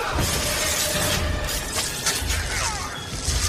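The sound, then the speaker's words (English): A marshmallow cast from a fishing rod strikes a wall, heard as a steady crackly, tickly rustle with a few brief soft taps, moderately loud, with no voices. “I never heard a marshmallow hit against a wall from a fishing rod.”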